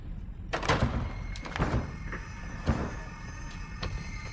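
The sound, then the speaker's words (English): A door is forced with several heavy, irregular thuds and bangs, with rattling and scraping between the blows. Nobody speaks. “you broke the door.”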